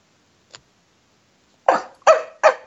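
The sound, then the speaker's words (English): A person's voice yaps like a small chihuahua: three sharp, high, quick barks in a row, loud, after a brief faint tick. “Nigga sound like a chihuahua.”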